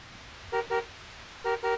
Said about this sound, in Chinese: 车喇叭声从背后传来，还按个不停。